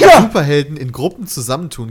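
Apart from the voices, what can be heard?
sneeze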